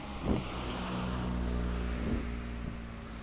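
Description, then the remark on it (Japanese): A continuous cicada-like drone from a tree in front of a parking lot, at night around 8 pm on September 5, holds steady and unbroken from start to finish, with a low humming rumble beneath it and a few faint bumps; no one speaks. “駐車場の前の木からずっとこの音が鳴ってるんですけどこれはセミなんでしょうか”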